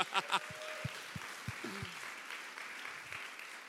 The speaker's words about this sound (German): Können wir mal den Lehrern, haben wir Lehrer hier? Können wir mal den Lehrern einen richtig großen Applaus geben? Hey, oder?